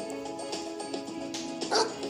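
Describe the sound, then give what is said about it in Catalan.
A pet dog out on a walk barks and yips in a quick, uneven series of short, sharp calls, with one louder bark near the end and no one speaking. “Lladra.”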